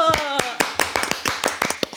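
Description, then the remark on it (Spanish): Applause from a small group, given for everyone: a string of sharp, irregular hand claps of steady loudness for two seconds, with a brief voice audible at the very start. “Un aplauso pues para todos.”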